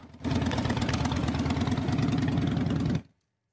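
Loud, throaty motorcycle engines rumble and rev as bikers rally against school bullying, a dense pulsing roar held for about three seconds before cutting off abruptly. No one speaks.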